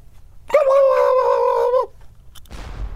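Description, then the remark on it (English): A person imitates a turkey gobble: one loud, warbling, throaty call lasting just over a second, followed by a short pause and then a rough, noisy burst. “Can you do the turkey sound, but then you get shot?”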